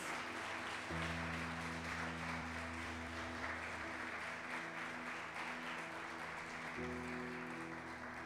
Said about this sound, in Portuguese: Se você crê nisso, dá uma salva de palmas a Jesus.